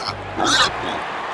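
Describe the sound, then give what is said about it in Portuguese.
A piglet oinks once, a short, harsh grunt that rises into a brief squeal, fairly loud, with no talking around it. “Colocando o porquinho dentro do estádio, poucos minutos antes de começar o jogo, soltamos o porco dentro do campo.”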